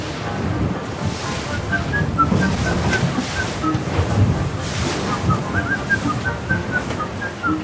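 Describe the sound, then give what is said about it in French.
On deck of the racing sailboat LinkedOut during the Vendée Globe, in the Pacific Ocean at the longitude of Chatham Island: steady rushing wind and churning water fill the sound, with faint whistling tones drifting through as if from rigging. No voices. “Seize micros embarqués à bord de "LinkedOut", le bateau”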